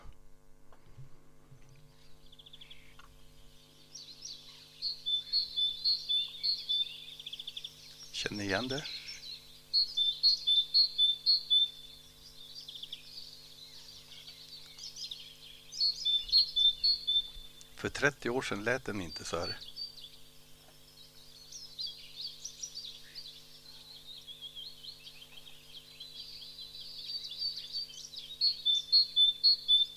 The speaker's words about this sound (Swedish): Och den första på våren, den första vårsången som man kan höra i februari är faktiskt talgoxen.